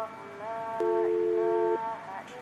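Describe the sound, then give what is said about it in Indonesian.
A mobile phone call rings with a steady electronic ringtone of sustained, overlapping tones, including one long held note in the middle. It plays on unanswered, clear. “Ini si Awang ditelepon kok nggak diangkat-angkat bisa nggak sahur dia pak?”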